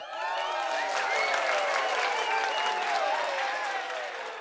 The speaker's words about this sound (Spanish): Así es que un aplauso y Mau inserta aplausos aquí mismo.